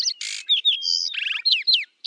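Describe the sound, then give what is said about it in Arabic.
A lark sings a rapid, varied run of high chirps, buzzy trills and whistled slurs, with no voices, bright and continuous before stopping abruptly. “ونحن الآن مع قبرة”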